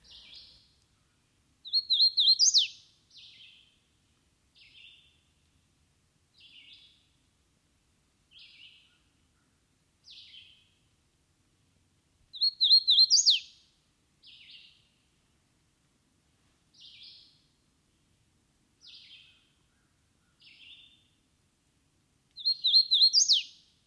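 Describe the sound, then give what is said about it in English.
A hooded warbler sings clear, whistled phrases three times, each ending in an emphatic rising flourish, with softer short call notes scattered between. Clean, no voices or background noise. “In one locality, full of azalea and swamp huckleberry, I'm always sure of finding the hooded warbler.”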